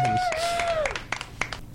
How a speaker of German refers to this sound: Immerhin kriegen wir einen Applaus für den Gesang.